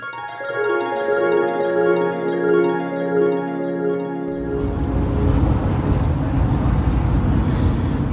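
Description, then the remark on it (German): A short harp musical jingle gives way, about halfway through, to the steady low rumble of a car interior while driving back from Bielefeld, a loud, continuous road and engine drone with no talking. “Jo, jo, jo, da bin ich wieder zurück im Auto auf dem Rückweg aus Bielefeld.”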